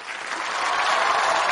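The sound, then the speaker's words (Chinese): A burst of applause and excited screaming, called for just before a stunt of swallowing a large light bulb: a dense, steady crackle of many hands clapping that swells slightly over about a second and a half, with no talking. “孩子，你看，来点掌声和尖叫，我来个绝活，口吞大灯泡。”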